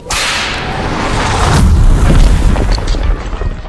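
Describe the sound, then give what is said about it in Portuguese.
A loud whip crack snaps sharply at the start, then gives way to a heavy booming rumble and hiss that swells and fades slowly, like a dramatic sound effect with no voices. “depois que eu terminei de conjurar, é, chicoteei o esqueleto de cima para baixo, assim, cacando é, bem no meio de tudo, como rachou o crânio, rachou tudo, como se tivesse sido assim, um chicote de aço decente.”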